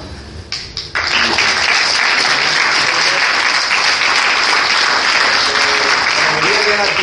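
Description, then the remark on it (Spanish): An audience bursts into sustained applause in tribute to Vicente after a brief moment, a loud, dense wash of clapping that holds steady for several seconds. “Y nada, un aplauso grande este, a Vicente, que seguro que nos está viendo desde ahí arriba.”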